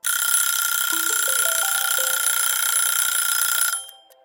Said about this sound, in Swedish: Eh, och jag hade köpt en, en vanlig väckarklocka eh, för att jag inte skulle väckas av mobilen.